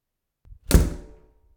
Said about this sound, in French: Elle claque la porte avec fracas.